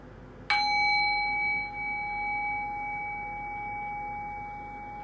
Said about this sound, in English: And I'll ring the bell again. Allow the sound of the bell to guide your thinking mind into silence.